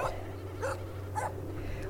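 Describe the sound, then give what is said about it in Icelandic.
A dog barks three times in short, evenly spaced yips over a steady low hum with no one speaking. “svo ertu nú, þú ert með hund hérna og svo ertu með heimalingana,”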